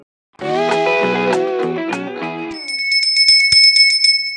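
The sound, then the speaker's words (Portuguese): A loud, melodic run of harmonic tones gives way to a bread vendor's bicycle bell passing outside. The bell rings rapidly and repeatedly, its bright, high metallic trill continuing steadily to the end. “Olha o pão!”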